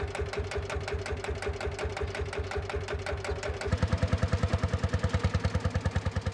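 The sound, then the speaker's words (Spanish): The engine of an old Pampa tractor, started up again and working the land in Córdoba, runs with a rapid, steady chugging beat, its thumps turning louder and heavier about halfway through. No one speaks. “e hijo logran poner en marcha el viejo tractor Pampa.”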